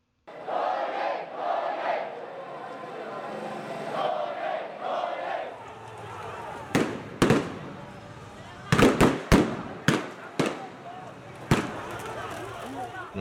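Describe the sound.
Shouting crowd voices give way to a series of sharp, loud gunshots, some single and some in a quick cluster, cracking out over the murmur of people on a street during a protest near a traffic circle in Naypyidaw, the capital of Myanmar.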